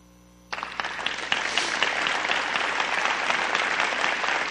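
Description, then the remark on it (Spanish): After a brief quiet moment, an audience breaks into sustained applause, a dense, steady clatter of many hands clapping that holds at full strength until the end. “Dale un aplauso.”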